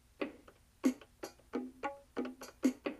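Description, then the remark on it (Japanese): Roughly eight short electronic drum hits from the drum pads of a music machine with about ten built-in songs, played one after another at an uneven pace, each a sharp synthetic thump with a brief tonal ring, clear with no talking. “でこうあの何て言いますかねこのメロディーだけではなくてですねこれあのドラムの音ですね”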